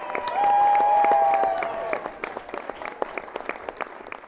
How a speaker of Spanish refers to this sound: ¡Aplauso, por favor!